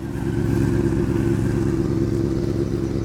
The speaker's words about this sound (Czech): Umírnění motorkáři opatrně projíždějí kolem inlinujících rodinek.